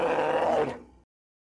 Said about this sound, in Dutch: Ja, je hebt de beer gehoord. Dat wil zeggen dat we verbonden zijn